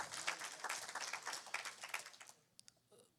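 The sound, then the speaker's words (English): A crowd claps hands in praise of Jesus in a dense, steady burst of applause that fades out after a couple of seconds, leaving a few last scattered claps. “Can you give Jesus one more hand clap of praise if you love him?”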